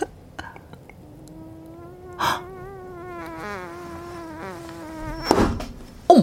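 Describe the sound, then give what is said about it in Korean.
A person, covering their lips, imitates a mosquito with a thin, wavering high-pitched whine into the mic for several seconds, broken by a couple of brief breathy bursts. “모, 모기, 모기 성대모사를 한다고 그래서 나는 또이 모기를 어떻게 해?”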